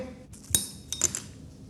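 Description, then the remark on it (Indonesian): A large amount of ice cubes drops into a glass: one sharp clink followed by a quick cluster of bright, ringing taps as the cubes settle, with no one speaking. “gila suara plupnya sih oke sih suara plupnya.”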